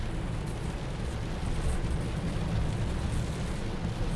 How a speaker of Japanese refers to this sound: 24号線の奈良向き方面に向かって帰ってるんですよねちょうど大久保大久保の方ですねちょ宇治宇治ぐらいですわかりますかね皆さんとにかく雨がもうめちゃめちゃすごいえぐい